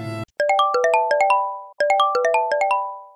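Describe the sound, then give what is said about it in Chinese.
A phone rings with a melodic ringtone: a quick run of bright, chiming electronic notes plays, pauses briefly, then repeats. A short noisy burst comes just before the first ring. The call is from the police station. “这时候，小李接到警察局的电话，”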